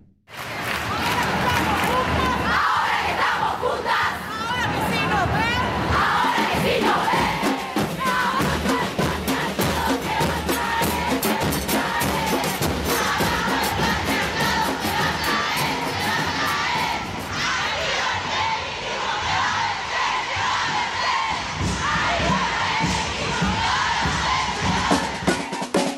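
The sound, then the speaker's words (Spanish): A huge crowd of thousands at a street march chants and shouts together in unison, heard from a distance, a dense, steady roar of many voices with a rhythmic pulse that stays loud and continuous throughout. “A lo lejos se escuchan los ecos graduales de miles de voces que se abrazan al unísono.”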